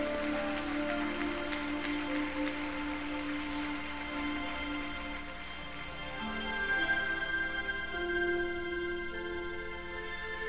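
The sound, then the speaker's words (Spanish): A church audience claps in a dense, steady patter as applause to the Lord Jesus, holding for about ten seconds, with sustained musical tones running underneath and no one speaking. “Aplausos al Señor Jesús, hermano.”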